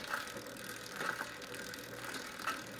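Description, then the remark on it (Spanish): A bicycle coasting downhill without pedaling, its freewheel ticking faintly over a steady rolling hiss, with a few brighter clicks at irregular moments. Moderately quiet, with no voices. “La bicicleta que no es pedaleada y que va bajando la pendiente, todo, todo eso y más, llega al oído.”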